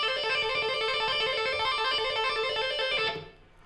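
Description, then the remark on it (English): A rapid, continuous run of tapped electric guitar notes cycling in a fast repeating tapping pattern that includes a hammer-on at the eighth fret of the E string, bright and sustained for about three seconds before cutting off abruptly. “If you play it fast, it sounds like this.”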